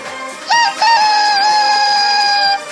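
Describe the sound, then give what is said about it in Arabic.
Comedian Sami Khayat's rooster lets out one long, loud cock-a-doodle-doo that rises sharply at the start and then holds steady for about two seconds, with a faint rhythmic ticking underneath. “راح اخذ الديك تبعي معي ونشوف كيف بدنا نحكي”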